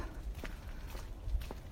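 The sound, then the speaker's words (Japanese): Footsteps crunch over ground damp from earlier light rain in a narrow pedestrian lane, at a steady walking pace, three soft gritty steps about half a second apart, over a low background rumble. “あの足音、サクサクって言いますね、雨が少し、えー、先ほどまでばらっとしてたもんですから、足の足音、ね足音、いいですね、足音も。”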